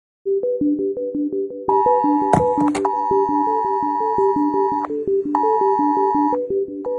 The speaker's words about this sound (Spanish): Esta es la alarma que sonó en los teléfonos de todos los ciudadanos en España hace unos días, alertando de que llegaba una dana. Fue un aviso pensado para prevenir accidentes.